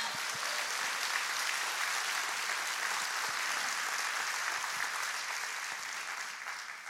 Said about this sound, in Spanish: ¿Puede dar al Señor un fuerte aplauso?